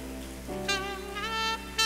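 An audience applauds in the name of Jesus with a steady, dense crackle of clapping that swells toward the end, while sustained musical tones hold underneath and shift pitch partway through.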